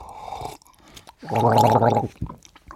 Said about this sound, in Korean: 까글 소리. 많은 분들이 찾아주셨어요.